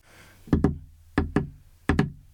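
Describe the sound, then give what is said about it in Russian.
A prisoner knocks on a wooden door: three pairs of sharp, solid knocks, evenly spaced and fairly loud, with a faint hum in the background and no voices. “Стучит явно арестант.”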